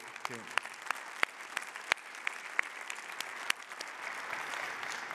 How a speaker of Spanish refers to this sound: ¿Por qué le damos gracias y les damos un aplauso fuerte a esos hermanos que